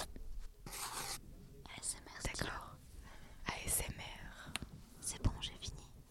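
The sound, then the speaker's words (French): A pen scratches across paper in short, looping strokes as someone circles parts of a drawn human body. The scratching is fairly quiet, and someone whispers softly over it. “Aimez-vous le bruit du stylo”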